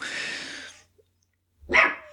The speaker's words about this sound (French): Bon, ça c'est mon chien.